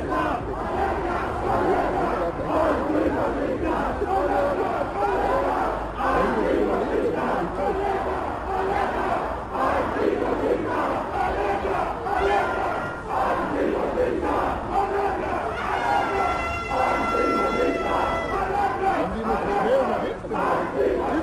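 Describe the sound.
A large crowd chants in unison, voices loud and sustained with rhythmic shouting, a dense wall of many people calling out together at a street protest march, with a whistle-like tone briefly rising near the end.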